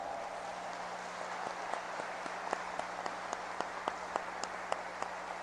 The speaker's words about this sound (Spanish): Bueno, entonces vamos a darles un fuerte aplauso por adelantado.